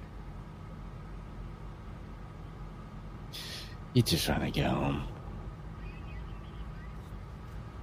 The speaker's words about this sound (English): We're um, over on his reason right now, and I'm in like a Lyft car, and this Man. dude is literally hanging onto the car. He oh. let us go. Oh, fuck, dude. He's like oh, trying to force his way in the car for a ride.